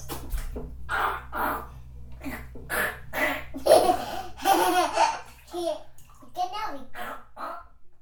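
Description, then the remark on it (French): A child's voice imitates a dinosaur with a string of loud, raspy, screeching cries, each burst separated by short pauses, with a touch of laughter mixed in. “Ça fait quoi quel bruit dinosaures Bah, on sait pas trop parce que on, les a pas connus, nous, les dinosaures.”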